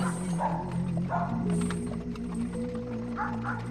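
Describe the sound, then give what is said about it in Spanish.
Several dogs howl together in long, drawn-out, overlapping wails that hold steady pitches, fairly loud and continuous, with faint clattering in the background. “Ningún rumor de gentes, solo el aullido de los perros.”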